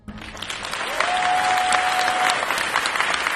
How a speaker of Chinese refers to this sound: 演出结束后，观众全体起立，掌声经久不息。